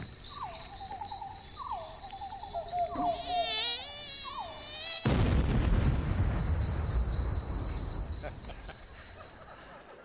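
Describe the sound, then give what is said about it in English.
In a commercial, a thin, high-pitched mosquito whine drones steadily throughout. Warbling chirps and a shimmering sweep play over it, then a sudden loud, crackling burst hits as the mosquito blows up, slowly fading while the buzz continues. “First time I saw it and saw the mosquito blow up, I'm like, whoa, man.”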